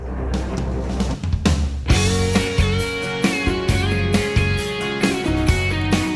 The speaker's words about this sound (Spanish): esta es una canción festiva de amor, o sea, una de, amor alegre, de amor feliz. Sí.